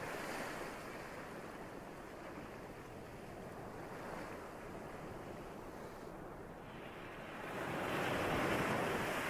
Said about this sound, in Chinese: 停下来，把你的注意力再次的放在这个海浪的声音上面。